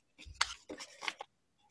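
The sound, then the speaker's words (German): Paper crackling and rustling in a few quick bursts over about a second as a folded question slip drawn from a small stack is opened, with a soft thump of handling at the start and no voices. “Es raschelt, es knistert. Und ich öffne.”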